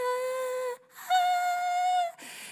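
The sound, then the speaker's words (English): A voice imitates the high-pitched ear ringing of tinnitus, like a dog whistle: a steady, held whine, a short pause, then a second sustained tone that ends in a breathy hiss. “I was the kid who, you know, um, when you randomly get like a whistle or a high pitched noise in your ear, it's like, ah”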